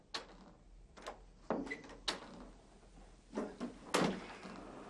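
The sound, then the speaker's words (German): A faulty, problematic door being worked open and shut, with a series of sharp knocks, rattles and thuds spread unevenly across several seconds, moderately loud, no voices. “Aber nicht nur das Tor, auch die Türen machen Probleme.”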